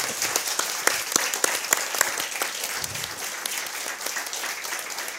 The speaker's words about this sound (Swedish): Och vi tackar kvällens panel med en applåd.